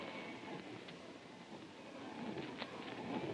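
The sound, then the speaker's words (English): A steady, curious mechanical humming from inside a strange object, heard from no more than 25 feet away. It drones on without a break, rough and rumbling like machinery, with a few faint higher tones flickering through it. No one speaks. “It's a curious humming sound that seems to come from inside the object.”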